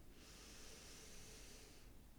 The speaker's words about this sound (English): Okay, we're gonna do three of those, breathing in through your nose, nice and light, just easy breaths first Noticing the cool air through your nose.